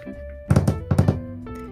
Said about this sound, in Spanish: Por ejemplo, alguien que está, no sé, me ha pasado en el trabajo, en clase o yo qué sé. Alguien que está con la mesa, con el tiki tiki, así.